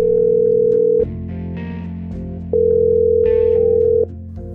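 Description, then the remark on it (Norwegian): A telephone ringback tone sounds while a call is placed to a state secretary at the Norwegian Ministry of Climate and Environment, with steady mid-pitched tone bursts of about a second alternating with quieter gaps, heard clearly without any talking. “jeg ringte statssekretær Christian Anton Smedshaug i Klima- og miljødepartementet for å få vite mer om situasjonen”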